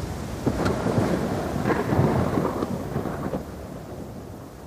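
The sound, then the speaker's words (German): A storm at sea roars with heavy rain, a dense, loud wash of downpour layered with low rumbling and sharp crackles, steady throughout, with no voices. “Es stürmt extrem. Die See verwandelt sich zu einem Bad aus Gischt, was die Bounty hin und her wirft.”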